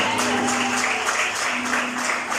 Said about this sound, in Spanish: ¿Cuántos creen eso? ¿Por qué no le da un aplauso a Jesús entonces esta mañana, por favor?